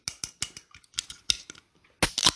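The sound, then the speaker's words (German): A string of sharp metallic clicks and crackles leads into a louder crack and a brief fizzing hiss as a can of OK Punkt Energy Blueberry energy drink is pulled open. “Sehr gutes Geräusch, jetzt öffnen wir meinen.”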